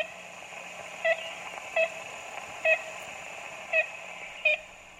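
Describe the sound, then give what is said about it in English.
Five short, nasal, tooting calls of an ivory-billed woodpecker, played from a tape recorded in the Singer Tract in the 1930s, spaced irregularly over a hissy, old tape-recording background with a faint low hum; each call is brief and fairly clear. “Jackson plays the same tape made in the Singer Tract in the 1930s, hoping for a response”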